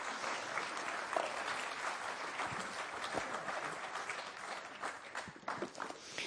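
Sustained audience applause, a dense wash of many hands clapping at a steady, even level for several seconds, with no voices standing out.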